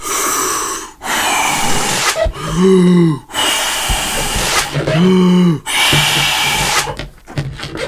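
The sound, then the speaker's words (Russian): A balloon is blown up with about six long, forceful puffs of breath in steady succession, with brief rubbery squeaks in a couple of the gaps, and no talking. “И на этих словах хранитель взял и надул шарик.”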